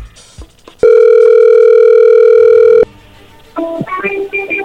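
A steady telephone dial tone hums for about two seconds, followed by a short burst of quick electronic tones as a number is dialed on a phone line.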